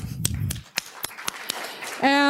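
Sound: short audience applause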